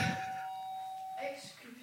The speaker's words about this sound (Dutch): Ding dong.